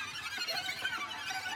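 A stomach growls with a rapid, croaking gurgle like a frog, a steady run of low pulses under a hissy, squealing edge, fairly quiet and lasting about a second and a half with no talking.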